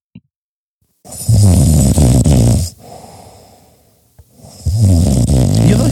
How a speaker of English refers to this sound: This is me snoring.